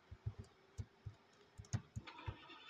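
A car engine rumbles low and quietly, its deep throbbing pulses thumping in an uneven rhythm with no voices over it.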